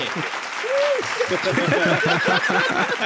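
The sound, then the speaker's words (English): A burst of applause sound effect: steady, dense clapping fills the whole few seconds, with voices whooping and laughing over it in short rhythmic bursts. “Can I get like an applause drop there?”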